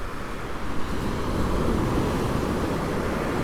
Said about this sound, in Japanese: なんかさ特に喋らなくてもこの音だけでいいでしょう波の音